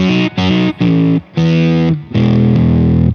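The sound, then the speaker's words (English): A heavily distorted electric guitar plays five loud chords, three short stabs followed by two longer sustained ones. The amp's gain has been turned up, giving a thick, saturated high-gain tone. No voices. “let's say I'm digging this sound, but I want some more gain.”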